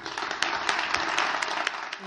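A crowd applauds with steady, dense clapping that holds at an even, moderate loudness for about two seconds, with no voices standing out above it.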